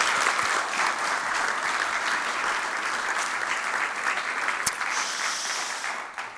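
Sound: applause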